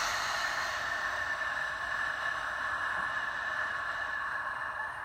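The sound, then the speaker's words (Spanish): A long, steady breath pushed out through the mouth during a deep-breathing exercise, a soft continuous whoosh of air lasting about five seconds, fairly loud, with no talking over it. “Y exhalo por la boca.”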